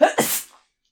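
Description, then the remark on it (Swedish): A single sharp sneeze: a brief voiced intake bursting into a loud, breathy hiss that fades within half a second, followed by silence. “prosit, känner jag.”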